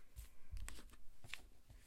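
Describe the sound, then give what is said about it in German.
A quick flurry of playing cards dropping and scattering, with several soft papery slaps and flicks in an irregular burst, fairly quiet, with no talking. “Wir sind gerade die Karten runtergefallen.”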